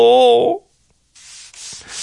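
A brief tonal musical note fades into silence, then a hotel bathroom disposable razor scrapes over chest hair, shaving it all off, in two raspy, fairly loud strokes with a short break between them.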